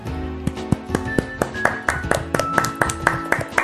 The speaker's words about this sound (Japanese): なんで拍手たかわかんないでわかんないで拍手しちゃダメなんだよわかんなんで拍手したかわかんない